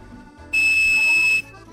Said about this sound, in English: that's 2600 hertz tone. That 2600 hertz tone is what controls the AT&T American telephone system, and it was developed way back in the 50s.